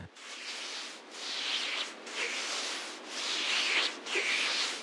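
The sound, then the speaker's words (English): A sample from an ASMR hand-rubbing video: hands rubbing together in a steady rhythm of about five broad, hissy strokes, each swelling and fading with brief dips between them. Soft, with no voices. “We're talking about ASMR, and this is a sample from an ASMR video of hand rubbing.”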